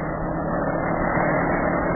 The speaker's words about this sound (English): Okay, I'm pushing down the gas pedal. Let's go. Hey, the motor started.